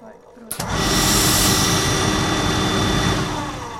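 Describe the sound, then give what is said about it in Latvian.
After a brief quiet moment, a loud burst of hissing steam from a steam iron starts abruptly and keeps roaring steadily for several seconds. Faint noise of sewing machines and scissors is underneath, in a theatre costume department's sewing workshop in the middle of a workday. “Ir darba dienas vidus un dailes šūšanas darbnīcā tvaika gludekļa šujmašīnu un šķēru skaņām fonā skanot”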